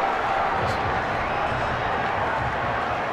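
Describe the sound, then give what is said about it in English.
A football stadium crowd at Colorado State roars in a steady, unbroken wash of cheering and applause, loud and even throughout the three seconds, with a blur of voices but no single speaker standing out, giving an ovation to player James Douglas as he is taken off the field on a cart. “And he also got a nice ovation from the crowd here at Colorado State.”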